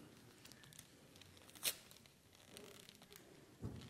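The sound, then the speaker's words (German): Gift wrapping paper tears with a sharp, bright rip near the middle as a wrapped present is unwrapped, surrounded by soft crinkling and rustling, then a duller thud-like crunch near the end; moderately loud, no talking. “Aber manchmal ein bisschen schwierig zum Auspacken.”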